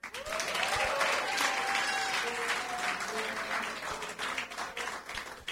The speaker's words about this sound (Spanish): Un aplauso al pastor